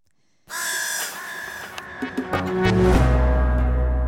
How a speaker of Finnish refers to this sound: kuunnellaan tähän ihan pieni pätkä Peking opera. Siitä, mitä se kuulostaa. Toki me ei nyt nähdä, miltä se näyttää.